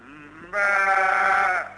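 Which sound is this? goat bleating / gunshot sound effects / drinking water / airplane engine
goat bleating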